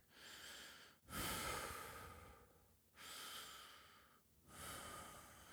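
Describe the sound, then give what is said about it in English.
A voice imitates the slow, deep breathing of a 35-pound child being rocked to sleep, with three long drawn-out breaths separated by brief pauses, fairly loud with no talking. “And I'm rocking him, And I can hear his breaths or”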